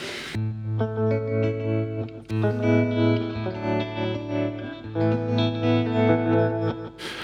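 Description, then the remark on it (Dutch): Electric guitar chords played through a small, simple Maleko tremolo pedal, the sustained notes pulsing steadily in volume with a smooth, regular throb. No one speaks over the playing. “De tremolo, hè? Ja, mooi.”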